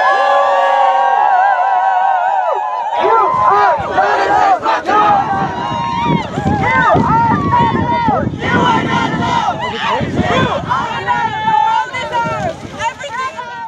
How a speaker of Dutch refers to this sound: Ja, dit zou ook zomaar bij op een FNV-bijeenkomst kunnen zijn, toch? Ja, ik zit even te denken, zitten nou naar een klimaatdemonstratie te luisteren? Of wat is het?